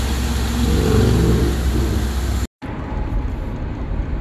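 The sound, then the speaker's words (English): A car engine drones while driving under a broad road roar, its pitch rising slightly. It cuts out abruptly, then resumes as a quieter, muffled cabin rumble. “are now in the car.”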